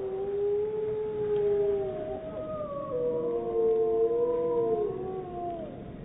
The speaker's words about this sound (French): C'est un enregistrement de deux loups, d'une mode de deux loups.